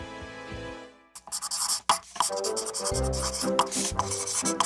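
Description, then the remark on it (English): A pencil scratches rapidly across a small stage built on a desk in busy, continuous scribbling strokes with a brief pause partway through, over soft background music. “Exactly and yet you continue to write all over my stage.”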